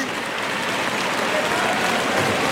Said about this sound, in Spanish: Y el público que aplaude a Morante.